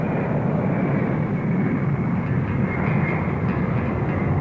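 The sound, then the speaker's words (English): A steady, loud airplane engine roars as the plane takes off from a runway, a dense low-heavy drone that holds constant throughout with no voices. “I got the plane off the ground and turned towards him.”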